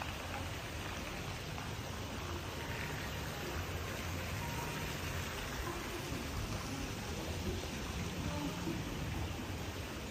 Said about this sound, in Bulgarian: Отново течаща вода.